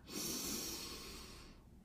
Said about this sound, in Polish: I jeżeli nie mamy problemu, nie mamy kataru, czy problemu właśnie z zagrodą y, w, w nosową, tak zwaną, to po prostu oddychamy nosem. Czyli robimy tak